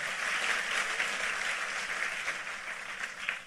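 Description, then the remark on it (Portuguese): Sustained applause from a crowd clapping for God, a dense steady patter of many hands clapping at a fairly even level throughout, with no voices standing out. “Aplauda Ele, e o seu amor é o que nos mantém de pé.”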